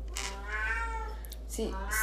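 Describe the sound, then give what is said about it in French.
A cat belonging to the speaker's sister meows in a long, drawn-out, wavering wail, followed by a shorter second meow near the end. “il faut fermer la gueule au chat de ma soeur.”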